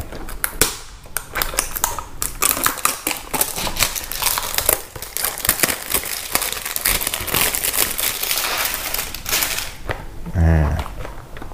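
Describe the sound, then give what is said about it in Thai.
A product box of 30 capsules, sealed in an inner layer, being unwrapped: a dense run of crinkling, tearing and crackling with sharp clicks and taps, steady and fairly loud, ending in a brief low thump. “โอเค งั้นเดี๋ยวเรามาแกะกันเลยว่าข้างในเป็นยังไง”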